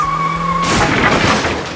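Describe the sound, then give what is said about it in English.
At the start of a race, a car's steady whining engine tone gives way to a loud, rough tire skid as it goes in reverse, scraping on for about a second, with no voices. “You're in reverse!”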